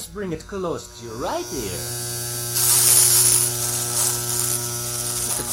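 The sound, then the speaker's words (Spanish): Electric hair clippers at a barbershop buzz steadily, starting after a brief voice and growing louder and harsher midway as they seem to cut, humming on to the end. “Esta es en la barbería.”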